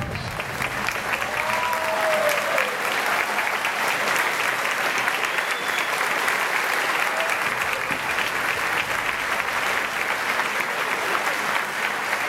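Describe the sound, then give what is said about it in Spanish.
A large audience at an event applauds steadily for about twelve seconds, welcoming a speaker to the stage: a dense, even wash of clapping with no pauses, while a few faint whistles rise briefly above it. “Recibamos de pie y con un fuerte aplauso.”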